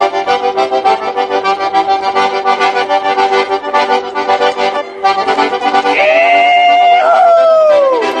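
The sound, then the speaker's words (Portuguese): The President of the Republic gives a high, excited little shriek in Manaus. It rises and then bends downward over about two seconds near the end, loud over steady accordion music that plays throughout. “Pois é, esse gritinho aí animado é do presidente da República.”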